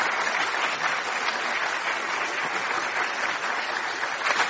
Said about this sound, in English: Um, let's give the Commonwealth Club and our staff a big hand.